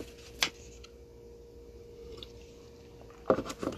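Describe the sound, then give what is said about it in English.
Someone takes a drink of water: a soft wet click early on, then a short cluster of quiet sips and swallows near the end, with no talking. “Excuse me, let me get some water.”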